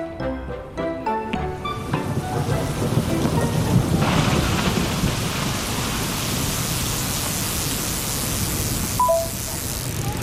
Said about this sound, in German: Also das Paradies ist, wie, wenn man durch eine menschenleere Berlinstadt fährt im strömenden Regen und die Blitze donnern über einen und man kommt heil zu Hause an.